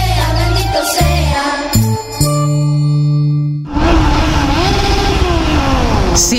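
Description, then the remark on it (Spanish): A motorcycle engine revs loudly in several short throttle blips, then gives way to a fuller, rougher roar that carries on to the end, in a radio advertisement for Suzuki motorcycles. “piensas comprar motocicleta, te esperamos en Suzuki Carrera 21.”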